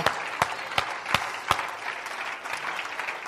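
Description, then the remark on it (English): A church audience claps hands together, a dense crackling patter with a few sharp, louder claps landing in a steady beat early on before settling into even, continuous clapping. “Oh, clap your hands unto the Lord right now.”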